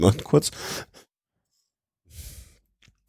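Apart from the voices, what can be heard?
coughing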